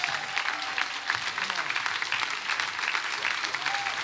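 Sustained applause from a large audience at a worship conference, clapping for Jesus: a dense, steady wash of many hands clapping at once with no pauses, loud and continuous throughout.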